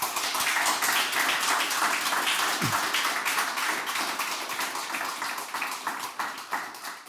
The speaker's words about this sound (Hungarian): Köszönjük szépen jelöltetnek, hogy elfogadták a meghívásunkat és eljöttek erre a vitára. Szeretnék kérni mindkét jelölt számára egy nagy tapsot a közönség soraiból.